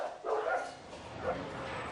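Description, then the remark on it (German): Many dogs, from Pekingese to bulldog, crammed tightly together at an animal shelter in heat with little water, bark and yelp over one another in a reverberant space, with a couple of louder bursts standing out against continuous background barking. “Überall Hunde, nirgendwo ein Mensch,”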